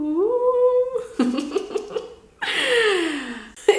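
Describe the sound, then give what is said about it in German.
A voice imitates the squeaky door of a building, said to sound a bit like a walrus: a sustained, rising creak, then choppy breathy bursts, and finally a harsh, scraping groan sliding downward. Fairly loud, with no words spoken. “und wir haben so eine quietschige Tür in unserem Gebäude und klingt so ein bisschen wie so ein Walrost.”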